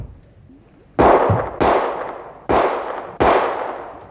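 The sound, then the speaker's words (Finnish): Four loud gunshots ring out in quick, uneven succession, fired to shoot open the lock of a locked door; each is a sharp crack trailing off into a short echoing decay, with no voices in between. “Ammu lukko rikki!”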